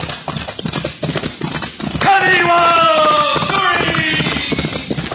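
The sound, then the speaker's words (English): Fury, a palomino horse, gallops with a rapid, steady clip-clop of hooves in a Straight Arrow Old West adventure. A man shouts loudly over the hoofbeats midway, urging the horse faster, and the drumming continues strongly to the end. “Faster, Palomino!”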